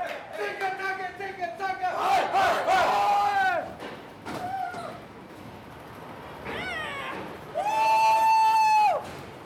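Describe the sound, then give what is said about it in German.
Excited riders on a bobsled ride during a half-hour exclusive ride time cheer with loud whoops and shrieks in repeated bursts, voices sliding up and down in pitch. The boisterous noise rises and falls. “Ihr hört eine ausgelassene Stimmung an der ERT.”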